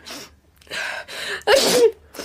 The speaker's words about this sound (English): Bless you. Uh, Blessing won't help. It's hay fever. I'm not used to the country.